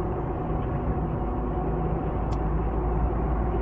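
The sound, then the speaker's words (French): Steady low rumble of a car driving along a road at a speed of 60, heard from inside the cabin, with constant engine and tyre noise and no voices. “Alors on ne roule pas vite, hein, on est à 60.”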